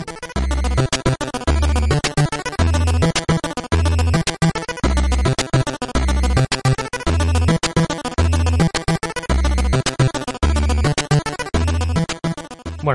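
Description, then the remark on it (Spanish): A loud, repetitive electronic video game background tune loops over and over, unchanging and constant throughout the whole game, with a thumping low bass pattern pulsing in a steady rhythm beneath busy, harsh, dense chiptune-like notes, no voices. “es constante y como no varía y ni suben ni bajan, es constante durante todo el juego amigos hasta que al final te explotan los ojos de escuchar esta melodía.”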